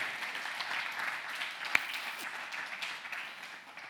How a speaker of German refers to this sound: Wenn die Band doch nach unten geht, lasst uns doch einen Applaus geben, einschließlich auch dieser Techniker.